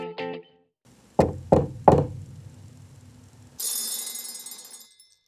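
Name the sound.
knocking on a door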